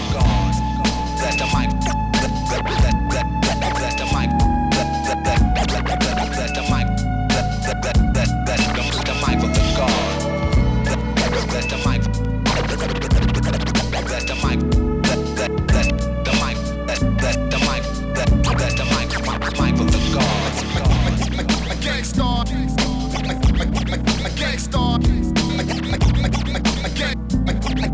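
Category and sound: sound effect, hip hop song playing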